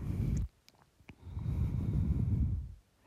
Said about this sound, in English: Breathing in.